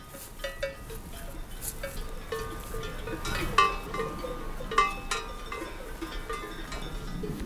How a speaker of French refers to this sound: Des chevaux, des sonailles, Paysages sonores, habituels, des estives.